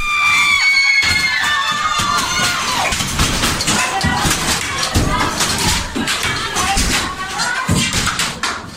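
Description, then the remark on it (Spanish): A group of about 20 women, radical feminists, shout and scream angrily together as they enter a building at a protest, loud, in a continuous chaotic roar with occasional thuds beneath it. “Un grupo de unas 20 mujeres fue el primero en entrar. Sus gritos rabiosos salían desde los pulmones.”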